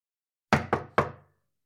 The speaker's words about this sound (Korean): 두어 번 노크를 해도 기척이 없어 손잡이를 돌려보았다. 문은 열려 있었다.